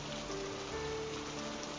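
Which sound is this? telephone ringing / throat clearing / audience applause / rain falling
rain falling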